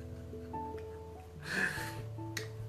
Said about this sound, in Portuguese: Desculpa, foi a porta que bateu ali esse barulho.